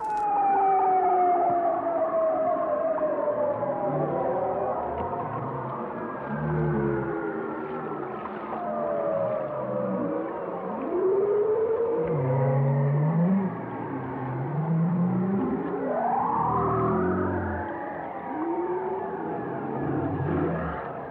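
Underwater fish sounds picked up by a hydrophone: overlapping wavering, swooping tonal calls and low grunts that continue without a break, loud, with no talking.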